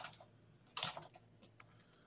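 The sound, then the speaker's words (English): Quiet computer keyboard typing of a search query, with a handful of light, uneven clicks and a brief denser flurry of keystrokes partway through, with no voices. “Like it as I was typing, it said what to bring at the end of it.”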